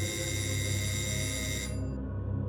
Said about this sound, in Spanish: Cuando de repente sonó el timbre.